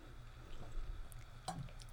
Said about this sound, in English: Excuse me, just taking a sip of water there.